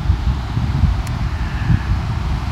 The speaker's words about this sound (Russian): Я надеюсь, слышно, потому что ветер такой сильный.